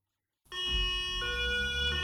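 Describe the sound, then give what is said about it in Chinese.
An approaching ambulance siren wails steadily, arriving at an accident scene, its tones stepping between two pitches over a low rumble of traffic, loud and sustained after a brief silence at the start. “救护车呼啸而来。”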